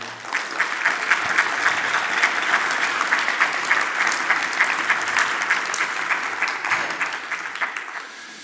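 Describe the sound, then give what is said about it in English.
A church audience applauds to thank its children's ministry leaders, steadily for several seconds, a dense wash of many hands clapping at even loudness throughout before easing slightly toward the end. No one speaks over it. “Thank you for your leadership in children's ministry. Can we thank them?”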